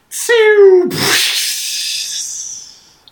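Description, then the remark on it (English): A voice imitates an energy beam striking water: a brief buzzing hum that cuts into a loud, breathy splash-hiss, which trails off over a couple of seconds, alone. “which is can you read this this sound effect that we got many times of what happens when a, a Dracon beam hits the water?”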